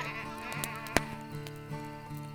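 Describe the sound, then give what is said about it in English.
A person imitates a goat with a wavering, nasal bleat that holds steady for about two seconds, with a sharp click partway through. “and the goat went, bah, bah.”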